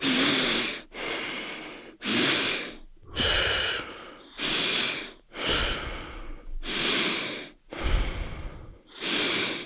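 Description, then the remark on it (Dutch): Rapid, forceful breathing, inhales and exhales following each other roughly once a second with no pauses between them, steady and rhythmic, with no talking. “En doe je, is dat een snelle ademhaling? Nou, het is eh, niet zo snel als een hoge bovenkant, maar het is wel achter elkaar door.”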